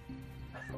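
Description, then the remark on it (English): A brief, quiet cat vocalization, a short meow-like call rising and fading in under a second, with a soft thump at the end and no talking. “It's the cat. The cat.”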